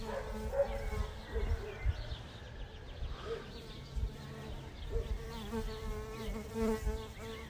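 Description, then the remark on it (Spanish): A honeybee buzzes, its steady droning hum wavering in pitch and loudness as it hovers and moves around, with no one speaking. “Ay, güey, eso que están oyendo, ayer llegó de la mañana a esta hora y yo pensé que una mosca, moscardón, abejorro, no, es una abeja.”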